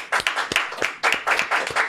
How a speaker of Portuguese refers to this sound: Não, palmas, palmas para essa equipe